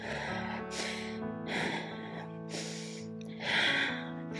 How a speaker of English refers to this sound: The best way to move that barricade, physically speaking, biologically speaking, just like our friend neuroscientist said, breathe.